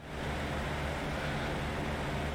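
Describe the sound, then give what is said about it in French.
A steady, continuous whir from an electric fan, with a low motor hum beneath a broad airy rush, holding constant throughout without any voices. “Non, c'est pas un bruit d'avion, c'est un bruit de fan.”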